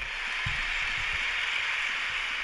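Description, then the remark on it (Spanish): Steady applause fills the whole moment, a dense, even crackle of many hands clapping at once, with a few soft low thumps underneath and no voices. “De ahí le están aplaudiendo.”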